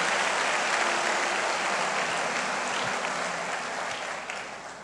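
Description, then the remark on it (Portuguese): A large crowd applauds Jesus during a sermon, a dense wash of many hands clapping at once that holds strong throughout and begins to taper slightly near the end. “Meu Deus, aplauda Jesus mais uma vez.”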